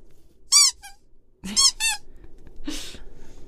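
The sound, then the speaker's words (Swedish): A short, squeaky novelty spoiler-warning sound effect plays after a button press: a few bright, high-pitched bursts over about three seconds, fairly loud, with no talking over it. “trycka på spoilerhajen.”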